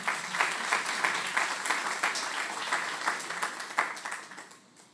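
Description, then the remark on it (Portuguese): An audience at a religious gathering applauds for Jesus steadily for several seconds, dense overlapping claps with a few sharper bursts, fading slightly toward the end as the clapping dies down. “Dê uma salva de palmas para Jesus que eu preciso beber água.”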